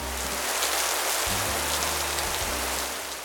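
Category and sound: nature, rain falling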